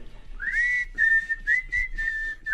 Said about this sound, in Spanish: ¿Me puedes poner la canción de Quentin Tarantino, la de Kill Bill, la de... la, del chiflido?